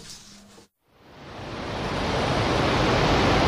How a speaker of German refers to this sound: Wahnsinn! absolute Wahnsinn. Was für Wassermasse. Was für ein Naturschauspiel hier!